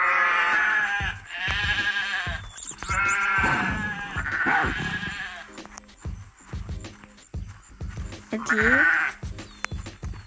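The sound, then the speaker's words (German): Several sheep bleat in overlapping, wavering calls, loud, with a final bleat near the end and a brief spoken word mixed in. “Für dich ein paar Schafe.”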